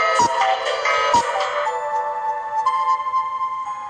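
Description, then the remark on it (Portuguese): A clock chimes twice, each loud metallic strike followed by a sustained ringing tone that lingers and slowly fades, with no voices present. “Cinderela ouvir o relógio bater.”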